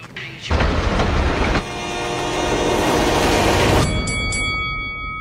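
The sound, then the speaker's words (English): A train rushes past on railroad tracks, a loud, steady rumbling roar that builds suddenly, with sustained horn-like tones running through it before thinning into a high ringing hum. “Every day, people tempt fate and die trespassing on railroad tracks. See tracks, think train.”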